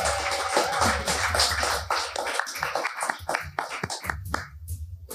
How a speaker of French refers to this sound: Félicitations. On peut les applaudir, mesdames, messieurs.